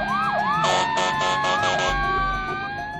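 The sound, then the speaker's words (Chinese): Several emergency sirens from police cars and ambulances wail at once as they race from all directions toward a department store in Kunming after an explosion, their pitches sweeping up and down and overlapping, with a steady tone and rumbling traffic underneath. No one speaks. “与此同时，警车、救护车也呼啸着从各个方向朝百货大楼疾驰而来。”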